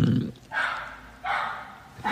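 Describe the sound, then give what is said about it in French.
A neighbor's dog barks repeatedly in loud, sharp bursts spaced roughly a second apart, clear against a quiet background. “Je vous présente le chien de ma voisine, voilà, qui est totalement insup.”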